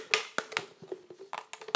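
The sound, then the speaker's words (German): Repeated crunching taps and scrapes as about half a tablespoon of cane sugar is poked and muddled in a glass to spread it, about ten quick irregular strikes in under two seconds, with a faint ringing tone underneath. “Stoche da noch so ein bisschen drin rum. Der Rohrzucker sollte sich da eben drin verteilen.”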